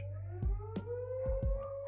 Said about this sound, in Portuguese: Sirene do meio-dia, Vamos deixar que passo.